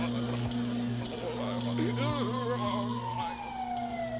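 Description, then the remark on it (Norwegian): An ambulance siren, as health personnel arrive, warbles and swoops in rapid wavering tones before sliding downward into a falling wail, all over a constant low engine-like hum at moderate volume. “Om litt ankommer helsepersonell, og Genki får det tilsynet han trenger.”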